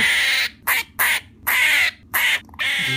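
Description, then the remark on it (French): Loud, shrill screams from baby squirrels in a nest under a tire, as the tire is gently pulled away with a broom, coming in a rapid series of about five harsh bursts separated by brief pauses, with no talking. “des hurlements, comme si j'ai trippé toute la fratrie.”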